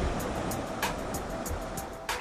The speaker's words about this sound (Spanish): A lo lejos se oye el mar Mediterráneo.